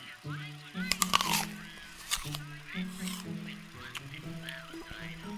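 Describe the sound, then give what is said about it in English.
Crisp, crunchy bites into a fresh red fruit, a few sharp bursts clustered early and again midway, over a steady low humming drone. “Listen to the sound of teeth crunching through sweet red skin.”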